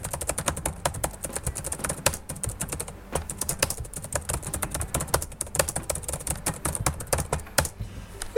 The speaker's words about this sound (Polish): Mamy, e, jeżeli chodzi o klawiaturę, to ja może teraz zademonstruję tak szybciutko, jak wygląda pisanie na tej klawiaturze.